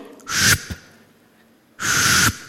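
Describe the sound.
A voice imitates falling rain with two breathy hissing bursts, each about half a second long and separated by a short pause. The sound is fairly loud, with no talking.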